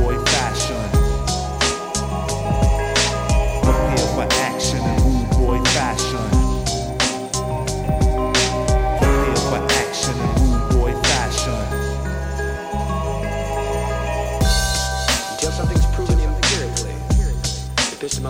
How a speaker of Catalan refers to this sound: un productor americà que el 2014 va treure un EP… i del que hem escollit aquesta cançó que esteu escoltant